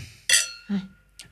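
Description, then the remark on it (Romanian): A bright glass clink rings out near the start, followed by a lower knock and a softer second clink, as two people tap wine glasses together in a toast. “Noroc, Irina. Iar?”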